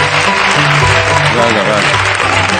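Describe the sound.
An audience claps loudly and steadily, a dense continuous patter of applause filling the whole stretch, with voices murmuring underneath.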